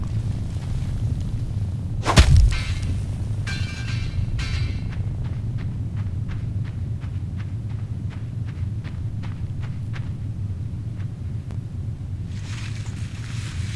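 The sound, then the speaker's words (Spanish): A heavy metal bear trap is dragged along, opening with a sharp clank and then a steady run of rhythmic metallic clicks and rattles over a low, constant rumble, with no voices. “Eso está, arrastrando una de las trampas de oso que decía Dex.”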